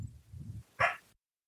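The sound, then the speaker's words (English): A single short bark from the speaker's own dog sounds after a moment of low rumbling background noise, sharp, then everything goes silent. “That's my dog.”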